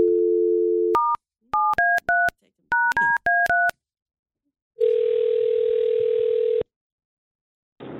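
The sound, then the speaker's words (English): A steady telephone dial tone gives way to a quick series of touch-tone beeps as a friend's number is dialed, followed by a long ringback tone. The sounds are clear, with no talking. “All right, let's go ahead and call Jamie.”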